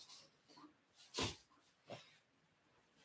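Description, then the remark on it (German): A small young dog huffs and snorts while being picked up by its owner, with a couple of sharp breathy bursts and soft rustling of handling in between. No one speaks. “Ich nehme mal kurz meinen Hund hoch, der hat irgendein”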